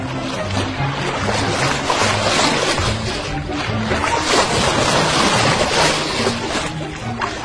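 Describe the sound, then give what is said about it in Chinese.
Sea waves wash and roar at sea as a storm begins, a steady, continuous rush for the whole stretch, with faint low tones humming underneath and no voices. “没过多久，他们就发现自己已经来到了大海里了。”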